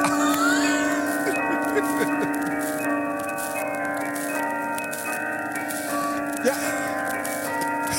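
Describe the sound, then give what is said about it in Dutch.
The carillon bells of the Hilversum town hall, Netherlands, ring out in a steady melodic pattern, many sustained tones overlapping and ringing together at moderate volume, with faint background noise underneath. “Nou, wat dacht je dan van het carillon van het Hilversumse Nou, stadhuis op gek.”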